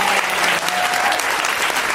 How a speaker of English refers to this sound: So thank you, and give one more round of applause yeah. to yourself.